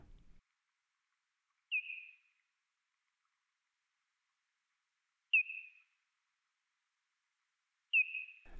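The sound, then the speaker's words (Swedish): Three slowed-down echolocation calls of a parti-coloured bat, originally at about 25 hertz, each a short downward-sweeping chirp, spaced a few seconds apart in otherwise silent surroundings. The calls are clear and fairly loud, with no talking. “För er som inte hörde den gråskimliga fladdermusen nyss kommer här en nedsaktad version.”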